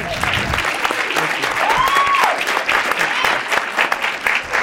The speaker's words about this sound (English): all y'all have literally you have no idea what that applause means because I got teased and pointed.